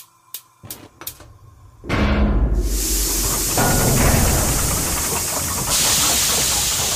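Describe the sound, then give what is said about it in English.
A few sharp clicks and knocks, then a sudden loud whoosh as a furnace loaded with two to seven pounds of home fuel is set alight to heat water for cleaning dishes, settling into a steady roaring hiss of fire that continues to the end. “Now, just put two to seven pounds of your home fuel allowance into the furnace. There we go. Now set that alight.”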